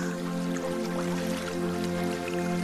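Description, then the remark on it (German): Steady running water of a small but strong, crystal-clear brook with a continuous babbling flow and scattered little drips and splashes, set over a sustained, humming tonal drone at an even level throughout. “Und während es immer deutlicher zu hören ist, siehst du auf einmal einen kleinen, aber kräftigen Bach.”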